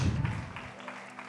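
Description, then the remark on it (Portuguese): An audience applauds Jesus in a brief burst of scattered clapping, fairly loud at first with a low rumble underneath, then thinning out and trailing off. “Você pode dar um aplauso a Jesus.”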